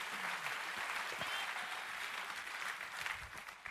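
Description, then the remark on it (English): An audience claps steadily, a dense wash of many hands sustained at a fairly even level for several seconds with no voices standing out. “Come on, if you're gonna clap, let's clap.”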